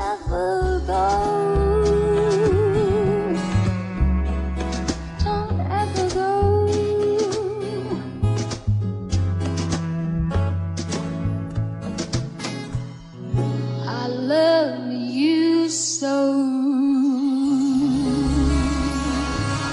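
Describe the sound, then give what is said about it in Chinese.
Instrumental Chinese background music led by the pipa, a Chinese folk instrument, with rapid plucked notes and tremolo phrases over sustained mid and low accompaniment, steady and fairly loud throughout, with no voices. “这是由中国民乐器琵琶主要来演奏的。”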